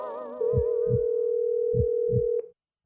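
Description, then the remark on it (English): A phone set on a table on speakerphone gives a steady electronic ringing tone for about two seconds, with four soft, low thuds like a racing heartbeat pulsing beneath it, then cuts off abruptly. No one speaks. “Reporter Hippo's heart raced faster and faster as the phone rang.”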